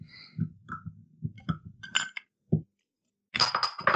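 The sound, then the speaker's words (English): Bottles of Hobgoblin Gold beer being cracked open: glass clinks and dull knocks from handling, a brief pause, then a loud, bright hissing rush as a cap comes off. No one speaks. “The first beer of tonight is Hobgoblin Gold. Let's crack crack them open, my mm.”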